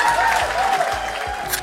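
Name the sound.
applause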